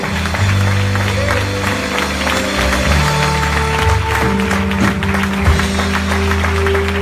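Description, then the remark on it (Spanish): An audience, asked to clap for ten seconds and louder, claps steadily and loudly for several seconds, a dense, continuous patter of many hands, with low sustained musical tones and a few scattered voices humming underneath. “Alguien que aplauda por los próximos 10 segundos, vamos.”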